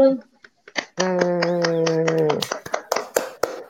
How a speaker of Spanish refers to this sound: Aplauso, please.